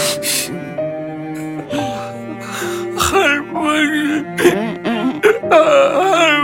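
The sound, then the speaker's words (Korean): A child cries and sobs, with wavering wails broken by sharp, breathy gasps. A steady background tone hums underneath. “아이고 내 새끼 울지마 울지마”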